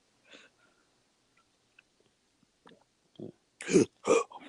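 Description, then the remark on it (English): After near silence with a few faint small noises, a short run of loud, rough, low bursts comes up at the end, like a deep, gurgling burp. “Yeah, I just had a nasty burp, you know, slaving in them in that warehouse will get you.”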